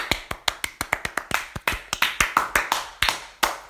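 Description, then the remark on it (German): A short burst of hand clapping, fairly loud, with about twenty crisp claps in a quick, slightly uneven rhythm, like one or two people applauding. No one speaks. “So, und jetzt, äh, jetzt wieder sind wir da, ne? Applaus.”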